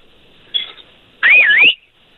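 A person whistles: a brief faint note, then a louder whistle that dips and rises in pitch for about half a second, with no talking.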